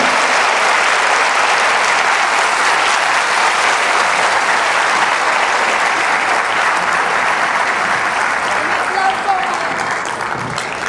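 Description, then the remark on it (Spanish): An audience applauds the Lord after a prayer, a steady, dense wash of clapping that holds at an even, loud level for about eleven seconds without letting up. “Un aplauso al Señor.”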